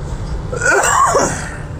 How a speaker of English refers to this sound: I'm coughing like a cocksucker on Halloween night.